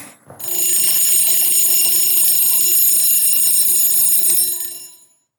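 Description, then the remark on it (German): A loud alarm clock rings continuously for about four seconds, a bright, buzzing high-pitched tone that starts abruptly and then cuts off, with no voices present. “Am Morgen, wenn der Wecker klingelt.”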